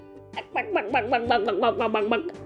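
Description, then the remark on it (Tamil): A person imitates a hen with quick, rhythmic clucking, about eight or nine fairly loud voiced pulses in a steady run, with no other talk. “அப்படின்னு ஒரு கோழியும் வளர்த்துக்கிட்டு இருக்காங்க”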